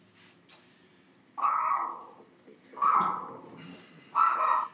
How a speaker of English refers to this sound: I think my uh, my uh, Jimmy speech got my dog all worked up too, too much information overload.